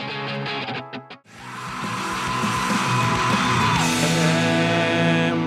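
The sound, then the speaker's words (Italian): After a brief choppy burst, a loud, dense rock song, the opening track of a band's last album, crashes in with heavy distorted guitars and raw yelled vocals shouting over the wall of noise throughout. “E questo era …, il pezzo che apriva il, l'ultimo disco dei …, ehm, che era …, eh, un pezzo così, un po' urlatino”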